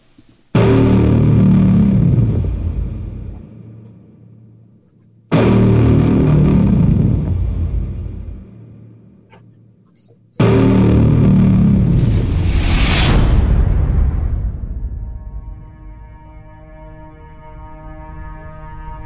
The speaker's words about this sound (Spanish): Vamos a hablar de, de lo último de Christopher Nolan, de Tenet. La hemos visto todos y bueno, os pongo el tráiler y luego hablamos.